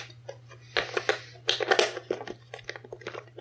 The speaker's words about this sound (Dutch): Ik kan dus even een klein eh, slokje van mijn ijsthee drinken. En ik heb een erg droge mond.